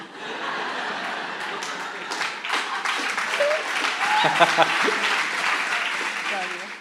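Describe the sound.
A crowd applauds steadily for several seconds, a dense wash of many hands clapping, with some laughter and voices mixed in beneath it.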